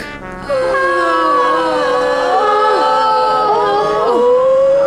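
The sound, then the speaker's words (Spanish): Several women wail and cry out together in long, wavering, overlapping moans, rising and falling continuously and fairly loud, with no ordinary speech. “¿Por qué gritan?”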